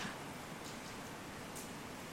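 Soft, steady hiss of light drizzle, an even wash of fine patter with no distinct drops standing out, faint and continuous throughout, with no voices.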